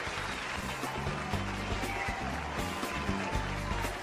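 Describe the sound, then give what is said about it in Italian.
A steady burst of applause from an audience welcoming a guest's entrance, dense and continuous for several seconds, with a low murmur of background sound underneath and no clear talking. “Dai un bel applauso, facciamo entrare subito”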